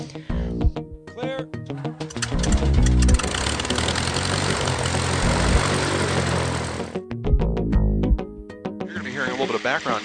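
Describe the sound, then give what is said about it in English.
A propeller airplane engine roars up loud, holding a broad steady drone for several seconds before cutting away, with voices talking briefly before and after. “noise throughout the day, but it's just airplanes, so it's not it's, it's not really noise.”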